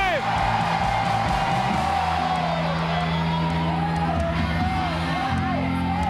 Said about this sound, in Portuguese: E enche o seu peito e dê o maior grito que você puder dar essa noite.